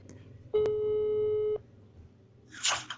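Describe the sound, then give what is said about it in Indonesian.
An outgoing phone call's ringing tone sounds once, a steady electronic beep about a second long, followed by a short burst of rustling noise over a low background hum. “Ini dia narasumbernya, coba kita telepon ya.”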